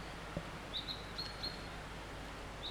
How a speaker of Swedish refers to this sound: kom fågeln väldigt nära här.